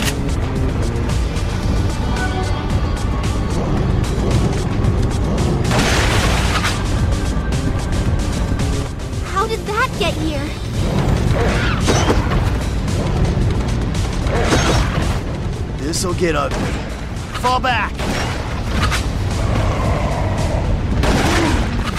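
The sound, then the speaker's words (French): Dense, continuous combat audio from a newly released shooter video game compatible with the Zapper: rapid gunfire bursts and booming explosions pile up over a rumbling low-end bed, loud and chaotic for the whole stretch, with no voices. “Donc ceci c'est le son de Resident Evil Umbrella Chronicles.”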